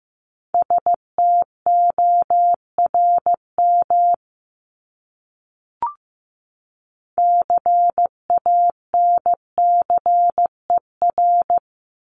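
Morse code beeps in a single steady mid-pitched tone, keyed into short and long pulses at a moderate pace, sent as two bursts separated by a pause with a faint click between them.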